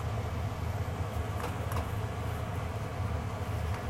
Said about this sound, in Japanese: で今あの料理しながらになっているので、えー換気扇の音がもしめちゃくちゃ入っていたらちょっとあのこれボツにしようかなと思います